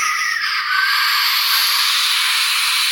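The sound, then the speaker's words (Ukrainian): Steady, bright sizzling of potatoes frying in a hot pan, a continuous hiss and crackle that stays loud and even throughout, with no voices. “Тому тобі не потрібно, тобі не потрібно нічого знати, треба просто слухати звук, як як тебе смажиться картопля.”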